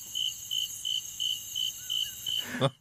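Crickets chirp in a steady, evenly spaced rhythm, about seven pulses over a continuous high-pitched insect trill, moderately loud, with no voices, ending in a brief soft bump.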